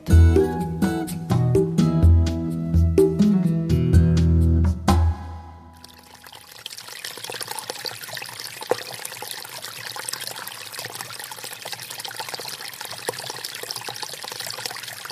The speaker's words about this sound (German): Was so schön sprudelt, gluckert und blubbert, das ist das Wasser von einer Quelle. Wir alle kennen das Geräusch.